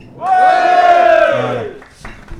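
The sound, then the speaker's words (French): A live audience at the Bistro Malherbe bar lets out a loud collective shout lasting over a second in reply to the host asking how they are, voices rising together in a cheering roar before fading into background murmur. “Est-ce que ça va, public”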